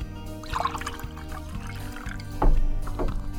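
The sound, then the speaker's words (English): Water is poured into a glass in a steady stream, with a rising gurgle and a brief louder splash near the end, with no talking. “Okay, water.”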